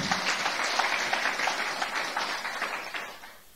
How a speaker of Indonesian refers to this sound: Katakan amin, berikan tepuk tangan bagi Tuhan.